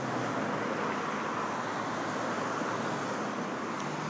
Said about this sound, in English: Ooh, here comes here comes the bus, little darling.